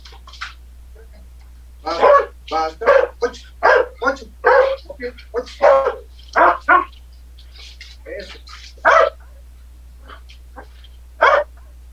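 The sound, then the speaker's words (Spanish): A dog named Kraken lets out a rapid run of short, sharp barks and yips, bunched in quick clusters over several seconds, then trailing off with a few scattered ones over a low steady hum. “No, no quieres ladrar.”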